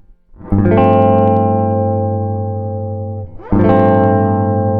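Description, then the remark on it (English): An electric guitar strums a G7 sus4 chord twice, letting the first ring out for nearly three seconds before restriking it; the tone is full, sustained and slightly driven, with no voices. “I have my guitar out, which is my primary instrument, and let's hear what a dominant 7 sus4 chord sounds like.”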